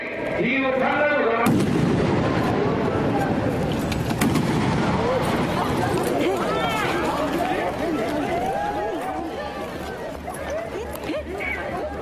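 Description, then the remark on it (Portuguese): Two sharp gunshots ring out a few seconds apart at the shooting of Japanese politician Shinzo Abe, who was shot in the back. The first is sudden and loud, followed by a commotion of shouting voices and crowd noise that continues throughout. “Um político japonês baleado nas costas levou dois tiros.”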